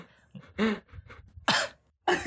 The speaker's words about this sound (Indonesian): oh takut batuk